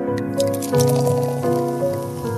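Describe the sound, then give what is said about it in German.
Water bubbles and gurgles steadily with irregular little pops and drips outdoors at night under the stars and moon, set against a sustained tonal music bed at moderate loudness; no one speaks. “Gott, ist es herrlich hier das blubbernde Wasser, die Sterne, der Mond schaut auf uns runter.”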